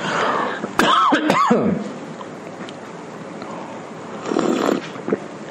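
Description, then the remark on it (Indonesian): A rough cluster of coughs and throat clearing near the start, followed later by a quieter, shorter throat-clearing sound, with no talking, from a person whose cough has not gone away despite treatment. “ini batuk nggak hilang-hilang ini padahal sudah diobati tapi obat, tapi nggak nggak sergap saya mengobatinya ini kadang minum obat kadang tidak”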